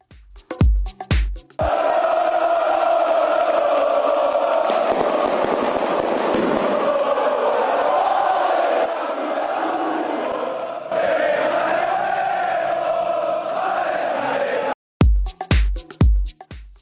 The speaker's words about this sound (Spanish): Vamos a escuchar el ambiente que se vivía en, en Elche mm, con la afición del Valencia tras la llegada del bus al Estadio Martínez Valero. Lo escuchamos.